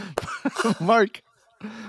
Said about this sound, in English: You can hear him coughing in the background.